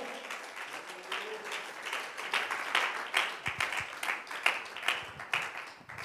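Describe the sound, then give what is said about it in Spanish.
An audience breaks into sustained applause during a sermon, clapping for God's glorious power, many hands clapping in a dense, crackling wash that swells and stays steady for several seconds, with individual sharp claps popping out toward the end. “Alguien puede aplaudir su glorioso poder en ese esta hora.”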